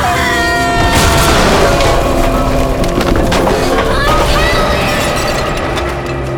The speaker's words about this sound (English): the stage is collapsing!